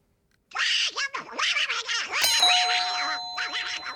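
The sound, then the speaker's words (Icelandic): A single bright game-show buzzer bell ding sounds midway and rings on steadily to the end, layered over a raspy, warbling voice imitating a cartoon duck that chatters throughout. “Nú ætla ég að mæla með því að allir séu tilbúinir með puttan á bjöllinni því að næsta rödd er svo einstök að það er engin eins og þessi.”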